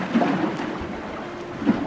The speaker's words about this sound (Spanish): De pronto se desató una tormenta. El viento soplaba tan fuerte que las olas se metían en la barca y ésta empezó a llenarse de agua.